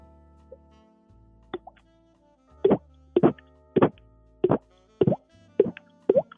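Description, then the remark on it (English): A voice imitates water drips with a steady series of about eight wet, plopping mouth sounds, fairly loud, spaced roughly half a second apart after a couple of softer starts. “So it's supposed to be uh, water drips.”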